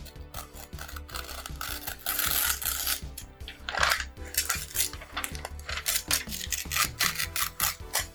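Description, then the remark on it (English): A paper character sheet being torn in a series of raspy, ripping pulls over several seconds, some long and some short, with a low steady hum underneath and no voices. “Oh well, that was a lot of tear. Yeah, I tried to make it not as much tear”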